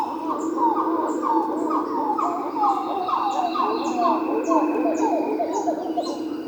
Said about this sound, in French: Un petit singe calicèbre, typique du Nouveau Monde.